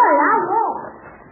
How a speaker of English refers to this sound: did you hear that? Well, that's just a Chinese timber wolf. They won't hurt you.